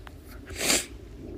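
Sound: sniffling nose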